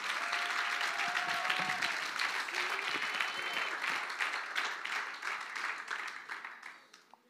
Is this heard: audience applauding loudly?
yes